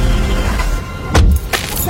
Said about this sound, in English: and the sound of you driving to see them